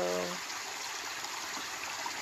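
nature, babbling stream water

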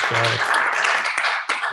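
crowd, applause

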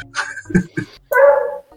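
animal, dogs barking

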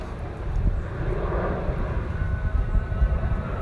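vehicle, airplane flying overhead

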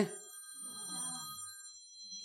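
signal or alarm, timer alarm ringing

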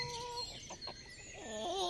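bird, rooster crowing

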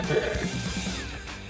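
human body sound, throat clearing

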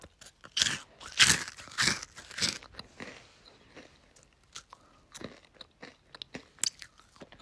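food or drink, loud lip-smacking

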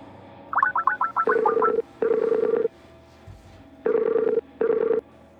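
signal or alarm, mobile phone ringing

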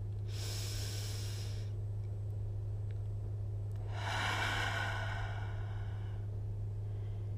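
human body sound, deep inhale through nose

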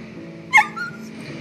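animal, dog howling and barking

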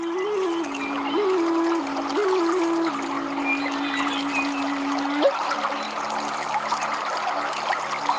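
nature, flowing river water

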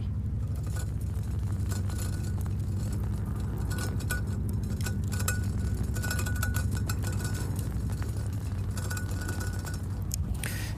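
household object, water boiling

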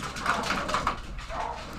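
animal, dog whimpering and barking

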